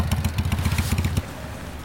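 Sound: motorcycle arriving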